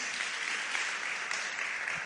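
Steady audience applause, a dense, even wash of many hands clapping at once with no pauses, bright and hissy, holding at a constant level throughout.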